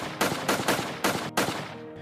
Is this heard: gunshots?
yes